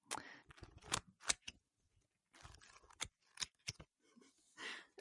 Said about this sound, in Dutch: Een, papiergeluidje voor tussen de overgangen of zo.